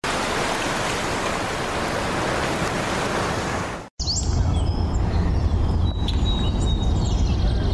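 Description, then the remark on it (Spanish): Two audio clips joined without a crossfade: a steady rushing, surf-like noise runs for about four seconds, then cuts off abruptly with a brief dropout and jumps straight into a different ambience with faint chirps and whistles, no blending. “Escuchemos un ejemplo de dos audios que no tienen crossfade.”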